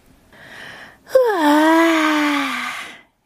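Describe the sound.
A reader imitates Clara's long, bored yawn while reading the children's story 'Claras große Gemütlichkeit' aloud: a breathy inhale, then a drawn-out, sliding vocal groan that fades out, with no other talking.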